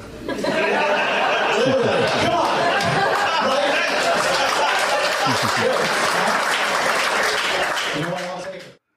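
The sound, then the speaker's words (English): A stand-up comedy audience at a clean show breaks into an applause break after a 'rock bottom' joke, dense clapping holding steady for about eight seconds with scattered laughter and chatter mixed in, then tapering off abruptly at the end. “and you get a rock bottom applause break.”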